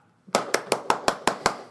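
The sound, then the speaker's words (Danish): An audience claps in unison to answer whether they think the pyramid ships in Destiny 2 are The Darkness: seven sharp, loud claps in a quick, steady rhythm, with no talking over them. “Hvor mange af jer tror, at pyramideskibene er The Darkness. Klap.”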